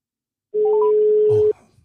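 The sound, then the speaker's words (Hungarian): A steady electronic telephone tone holds for about a second, with a few brief rising beeps layered near its start, like a call connecting. A faint low murmur sits underneath. “Nagyon jó, most már tényleg kapcsolódik a telefonom”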